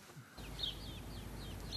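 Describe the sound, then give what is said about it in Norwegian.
Birdsong rings out in the quiet small town of Semenivka in eastern Ukraine: a series of short, high chirps and whistled notes repeating every fraction of a second over a steady, soft background hush. “Fuglesangen høres godt, for det er stille i den lille byen Semenivka øst i Ukraina.”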